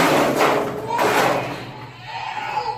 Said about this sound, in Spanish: Levantar la chapa.